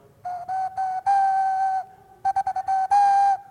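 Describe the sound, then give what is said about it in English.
A short tune whistled by mouth, an attempt at the Titanic theme: two phrases of steady, mid-pitched notes, a few quick ones then a long held note, with a brief pause between phrases. “I'm gonna, I'm gonna do the Titanic theme now.”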